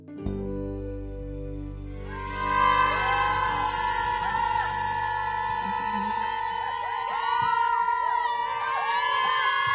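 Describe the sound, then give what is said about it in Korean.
A loud, sustained roar of audience cheering with high-pitched shrieks and whoops after a live song performance, rising sharply after a brief low musical ending and staying dense and steady throughout. “아, 아우, 정말 여러분들 함성이 제 군시절 점호 시간을 거의 떠오르게 할 정도로 네, 어, 너무너무 잘 듣고 왔습니다.”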